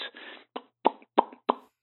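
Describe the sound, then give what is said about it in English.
Someone imitates kissing with their mouth, lips pressed together: a soft smooching sound followed by four quick, wet lip smacks in a loose rhythm, fairly clear, with no talking. “I lean in with my lips pressed together, and they do too, and I close my dream eyes and we kiss. And it sounds like this.”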